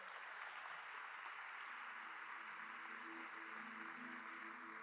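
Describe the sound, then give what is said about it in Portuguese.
Sustained morning applause for Jesus from a large crowd fills the room, dense steady clapping throughout, with faint tonal hum or organ-like notes rising underneath in the second half. “Quem pode dar um aplauso a Jesus, ao Senhor Jesus, nessa manhã?”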